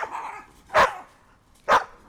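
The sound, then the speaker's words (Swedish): A terrier chasing while running gives two sharp, loud barks about a second apart, each short and punchy, with a softer rising whine or yelp just before them and no talking. “Och där har vi nu en terrier och där kommer jakten in.”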